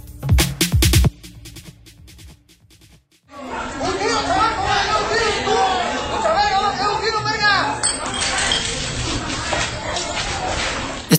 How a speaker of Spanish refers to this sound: que acabamos de escuchar son rocazos. Piedras, tubos, palos de madera y destellos de cascos de caguama lanzados por los cielos que luego estallaban en el suelo.